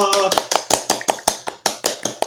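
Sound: clapping applause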